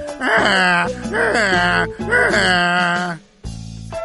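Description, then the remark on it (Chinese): A loud donkey bray repeats in three harsh hee-haw cycles, each wavering high cry broken by a low, raspy intake, before a short pause and a final rough breath. “我听这个样子，怎么那么像毛驴呢？”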